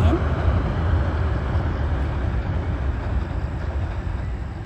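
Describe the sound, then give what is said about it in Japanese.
Loud, steady rumble of two trains, one on each track, crossing a railway bridge over a river at the same time, a heavy continuous roar with rattling wheels that fills the whole clip. “ああすごい上下で電車が来てしまったのでダブルの、えー、大きな音が聞こえていますよねすいませんうるさくってちょっと見送りますね。”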